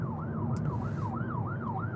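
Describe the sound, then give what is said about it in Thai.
An ambulance siren wails in quick, repeating rise-and-fall sweeps, holding steady and fairly loud over a low rumble of road traffic, with no one speaking. “อ่ามีรถพยาบาล”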